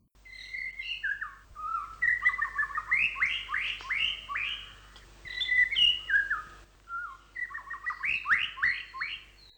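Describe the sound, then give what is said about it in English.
A male white-rumped shama sings to attract a female, a rich, varied song of clear flute-like whistles and quick rising trills in several bursts, fairly loud, with short pauses between phrases and no one talking. “The series of melodious trills and flute like whistles that make up the male's song when he's trying to attract a female can often be heard year round.”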